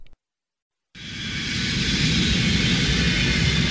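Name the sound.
airplane cabin engine drone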